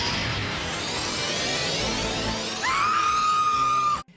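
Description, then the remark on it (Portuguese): The cry of the Pokémon Victreebel: a harsh, noisy rasping cry builds for a few seconds, then sharpens into a piercing, sustained high-pitched shriek before cutting off abruptly; loud, with no talking. “E aí, o, Victor Bell, o som dele é um berro. Assustador.”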